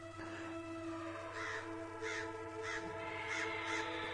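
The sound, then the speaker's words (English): A woman imitates animal calls, mixing a sustained, brassy elephant-like trumpet with a series of harsh, caw-like bird cries that repeat in short bursts, loud, with no talking. “That was her doing an impression of an elephant and birds.”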